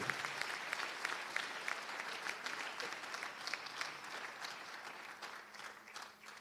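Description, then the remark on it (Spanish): A crowd claps steadily for several seconds as a strong offering of applause to the Lord, dense overlapping handclaps at a fairly even level, with no distinct voices standing out. “Pero, hermanos, ¿qué tal si nosotros hoy le, damos una fuerte ofrenda de palmas al Señor y le bendecimos.”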